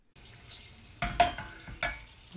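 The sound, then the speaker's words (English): Butter melting and sizzling in a pan until it comes to the boil, before gooseberries are added; a steady soft hiss broken by three or four sharper clatters, like a spoon knocking the pan. No one speaks. “Right, so whilst the butter's melting, do you think I should add the gooseberries now?”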